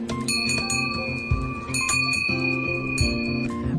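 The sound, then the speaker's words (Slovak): A small hand bell is rung repeatedly to open a Christmas-season program, in quick, bright jingling bursts, fairly loud, its sustained metallic tones overlapping with no voices present. “Ak na želanie, tak potom všetkým by som asi zaželala príjemné a spokojné prežitie Vianočných sviatkov a ja teda potiahnem za ten zvonček.”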